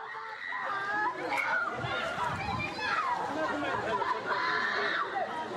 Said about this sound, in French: Une scène dramatique en, Moselle à présent, à Mézières-les-Messes, un appartement incendié. Oui, les deux parents d'une famille se sont retrouvés bloqués à l'intérieur et sur cette vidéo, vous allez voir, on entend leurs enfants hurler.